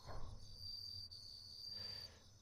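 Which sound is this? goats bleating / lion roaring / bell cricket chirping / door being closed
bell cricket chirping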